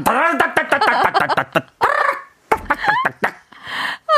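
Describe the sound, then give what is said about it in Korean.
A voice imitates the rattle of an old-style top-loading washing machine shaking hard, with quick, repeated voiced syllables in a rapid stuttering rhythm, fairly loud, breaking into shorter bursts and a breathy ending. “그런 세탁기 소리. 세탁기 소리. 달달달달달달달달.”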